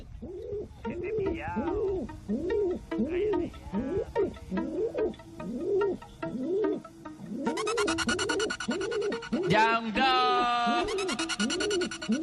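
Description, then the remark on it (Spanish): Pigeon coos, also called zureo, recorded and made into a music track, repeat in a steady, rhythmic pattern, and partway through a loud, dense musical layer joins in over the continuing cooing. “Bueno, pues el tío este ha grabado el Zureo, que es otro nombre que tiene el sonido de las palomas, y ha hecho un temazo.”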